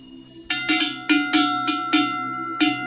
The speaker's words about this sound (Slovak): No to sú veľké zvonce na dobytok plechové.